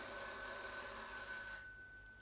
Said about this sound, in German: Es hat geklingelt. Ja, willst du nicht aufmachen?